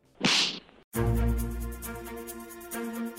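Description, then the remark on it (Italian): A single sharp whooshing slap effect cracks out loudly, followed by a short pause and then a sustained musical sting ringing out with steady tones. “Andiamo agli schiaffi.”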